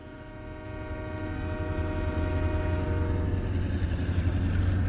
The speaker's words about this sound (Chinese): 一列火车轰鸣着开来。